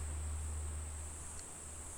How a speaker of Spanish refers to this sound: Esas son las cigarras. No es un ruido de mi micrófono ni nada por el estilo, son las cigarras que mm, en España solo se oyen en verano.